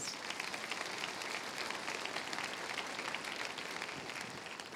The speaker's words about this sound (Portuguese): Vamos aplaudir a palavra do Senhor, irmãos.